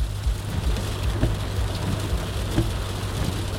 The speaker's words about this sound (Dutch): Vanuit Haarlem ga ik op weg. Het is midden in de zomer, maar toch regent het onderweg en niet zo'n beetje ook.